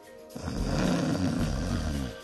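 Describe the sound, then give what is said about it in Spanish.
One loud, rattling snore from a sleeping person, drawn out for about two seconds, heavy with a deep, rough, throaty vibration. There is no speech. “Es estimado que más de 90 millones de la población en Norteamérica ronca mientras duerme.”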